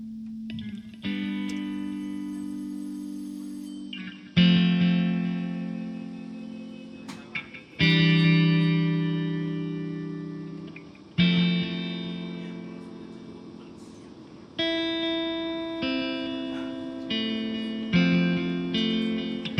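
A slow piano cover plays sustained, ringing chords struck roughly every three to four seconds, each swelling then fading, over a faint low background rumble of subway sounds recorded on Line 2. No one speaks.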